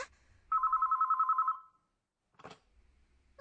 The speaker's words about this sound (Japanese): あ、次の電話だわ。